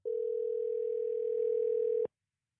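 A steady telephone dialing tone holds one unbroken pitch for about two seconds at even loudness, then cuts off abruptly, followed by silence.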